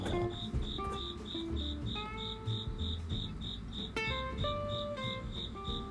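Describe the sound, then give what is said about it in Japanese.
Crickets chirp steadily from under the floor of a coffee roastery, a converted former horse stable, on a humid August evening: a regular high pulsing trill repeating throughout, clear, with faint low background noise and no talking. “床下にコオロギがいて泣いてるんですよね。”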